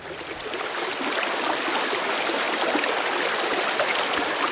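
Steady rushing of a flowing stream, water babbling continuously over rocks, broad and fairly loud with no voices present.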